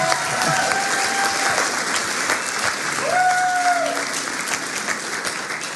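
An audience claps steadily for several seconds to thank the youth group: a dense, sustained applause with a couple of faint whistle-like tones rising above it.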